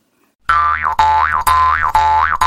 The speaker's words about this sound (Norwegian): Det må da gå an å bruke munnharsp i stedet.